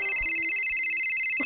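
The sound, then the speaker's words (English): A mobile phone ringtone plays, a steady bright electronic tone sounding continuously throughout, moderately loud, with a few soft low thumps underneath and no talking. “shit, that's my phone.”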